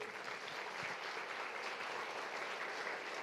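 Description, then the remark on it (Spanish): Steady applause from a church audience in honor of the Lord as King, a dense continuous patter of many hands clapping at an even loudness for the whole few seconds, with no voices standing out. “Denle un aplauso al Rey.”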